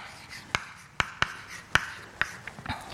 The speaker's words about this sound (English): I want to write down one version that's actually more helpful for us. Um, and then um, the second thing is that, let me write down the fact first before I define capital for you,